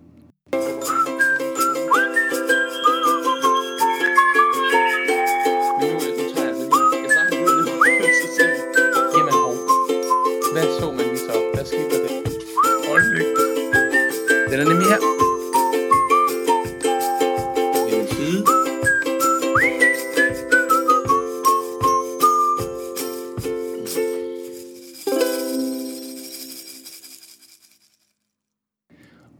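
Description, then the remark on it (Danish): A bright, upbeat jingle carried by a whistled melody over steady plucked and tinkling accompaniment with a regular beat, ending in a short chime-like flourish and fade. “så kan I lige få en lille jingle fra Morgenmokka med her”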